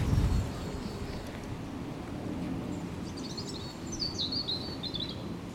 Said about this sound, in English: Oh, and we hear our first bird sound, which means we're getting away from the busy heart of Hackney and out to Victoria Park.